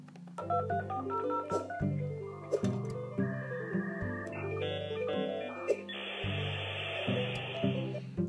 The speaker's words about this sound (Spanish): Así empezó este famoso sonido de Internet.